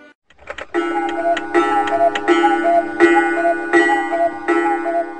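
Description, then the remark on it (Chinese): A German cuckoo clock calls repeatedly, about six evenly spaced two-note cuckoo tones with a reedy, pipe-like timbre, accompanied by mechanical clicks and a steady whirring underneath. No one speaks. “嗯，对，但是呢，也不全对，因为这个声音呢，确实是布谷鸟的叫声。但是我们刚才听到的，不是来自森林里的布谷鸟，而是一种叫做咕咕钟的报时器发出的声音。”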